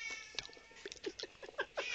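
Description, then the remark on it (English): A cat meows loudly and insistently, a rapid series of short, strained yowls and cries running one into the next with barely a pause. “The cat is going berserk, and I was trying to help.”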